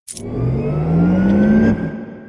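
A Porsche sports car engine revs up loudly, its pitch climbing steadily for a couple of seconds before dropping off abruptly as the throttle is released.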